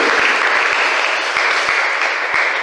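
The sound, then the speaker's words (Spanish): A crowd applauds for the Señor de Esquipulas, a dense, even wash of many hands clapping at a constant loud level, with a few sharper individual claps standing out, and no voices. “Pues, un aplauso al señor de Cipula.”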